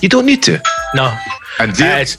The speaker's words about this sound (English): I think that's my doorbell.